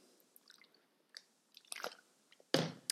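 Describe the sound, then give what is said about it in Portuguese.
Someone drinking water: soft wet mouth clicks and small sips, then a louder, fuller gulp near the end. No one speaks. “Estou a beber água porque.”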